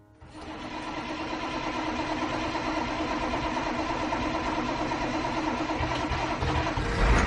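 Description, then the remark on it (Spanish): A large old 1980s bus engine cranks and catches, then settles into a loud, steady rumbling idle with a rattling mechanical edge that swells slightly at the end. No voices are heard. “El autobús.”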